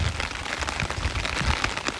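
Steady rain falls outdoors, a dense, continuous patter of drops with a low rumble of wind underneath, even throughout, with no voices.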